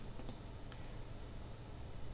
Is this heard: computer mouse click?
yes